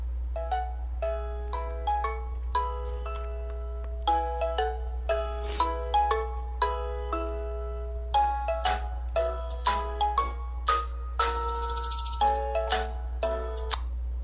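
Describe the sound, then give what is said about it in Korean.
A melodic ringback tone of an outgoing Voice Talk call plays on its own, bright electronic chime notes repeating in a steady pattern over a constant low hum, with no talking. “전화할 때 보이스톡 아면 방송하는 거지 뭐.”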